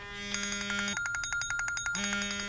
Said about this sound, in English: Oh, that's that's horrible. But I think isn't that what you want though in an alarm? Like you don't well, want to be like ah, nice soothing alarm. You want like a oh god, what's what's happening?